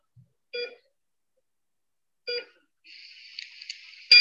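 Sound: electronic beeps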